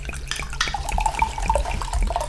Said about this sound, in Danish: Ja, ja, det er utrolig underholdende, at du, at du bare hælder noget vand op.